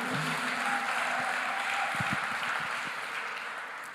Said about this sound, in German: Wer war nie im Kino? Ah, schön. Auch euch mal einen richtigen Applaus. Herzlich willkommen.